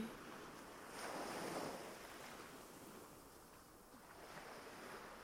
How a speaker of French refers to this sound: Vous mettez des images sur ces différents sons, sur le son de l'eau, peut-être même des sensations.